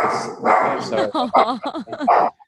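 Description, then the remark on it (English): A blind and deaf dog barks in a rapid run of short, high, yappy barks, fairly loud, with a brief pause before a final faint yip. “So this is typically the time when they're going to start barking.”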